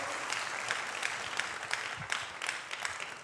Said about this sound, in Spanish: Si tú lo recibes, dale un aplauso fuerte al Señor. Worship team, come along. Vamos a darle un aplauso, ponte de pie conmigo.